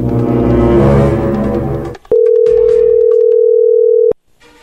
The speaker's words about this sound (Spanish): Perfecto, bueno, ahí entró la llamada.